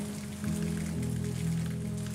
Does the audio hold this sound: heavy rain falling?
yes